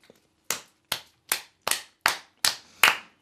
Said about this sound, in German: Übrigens, Leute, ähm, Applaus bitte.